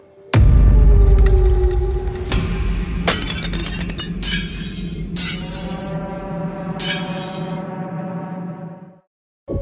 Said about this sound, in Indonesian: Bahkan sampai ada dua tiga gelas gitu yang sempat pecah.